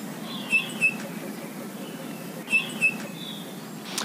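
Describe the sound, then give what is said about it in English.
Bullfinch song: two pairs of short, squeaky, high-pitched notes, the pair repeated after a pause, over a low background hiss. The notes sound thin and creaky, like a squeaky wheel. “Especially when their own song is just, has been likened to a squeaky wheelbarrow, you know, it's that melodic.”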